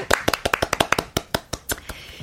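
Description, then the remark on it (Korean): A short burst of hand clapping, about fifteen sharp claps in a quick, slightly uneven rhythm that slows and thins toward the end, with no talking over it. “박수 보내드리겠습니다.”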